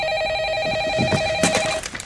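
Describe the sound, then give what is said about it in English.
A telephone rings in a scene from the movie Elf, with a steady, slightly trilling electronic tone lasting nearly two seconds, clear, with some muffled background clatter underneath before it cuts off. “I really want to start answering the phone like this.”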